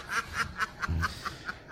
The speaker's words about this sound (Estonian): pardid on, ma arvan, prääksu öelnud ja nende prääks on lõplik.